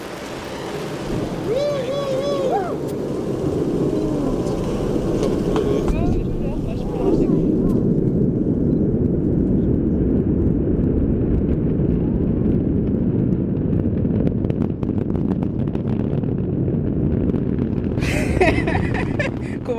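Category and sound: vehicle, rocket engine roar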